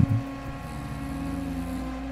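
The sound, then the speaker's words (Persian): A steady low 'gum gum' engine drone from wooden motorboats out at sea at night, heard from a beach house: a continuous throbbing hum with a slight bump at the start, moderately loud and heard alone without voices. “در خانه ساحلی روی تخت خوابم می نشستم و صدای گمگم موتور قایقهای چوبی را که برای مسافرتی پایان ناپذیر به دریا آمده بودند و شب را می کوبیدند گوش می کردم.”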